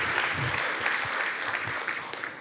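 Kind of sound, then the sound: crowd, audience clapping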